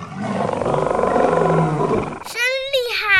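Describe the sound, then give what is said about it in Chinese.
A deep, rumbling lion roar, made by a little pig with a blue candy in its mouth, swells for about two seconds, then breaks off into a short, high, wavering vocal cry with bright tonal overtones. “就在小猪打算大声哼哼的时候， 含了这颗糖果就能发出狮子的吼声。”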